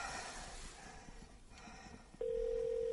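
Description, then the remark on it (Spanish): A mobile phone being dialed inside a coffin: faint rustling and soft handling noise, then a steady electronic phone tone starts abruptly and holds, loud, with no voices. “Marca un número y enciende el mechero.”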